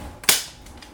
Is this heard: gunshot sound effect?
yes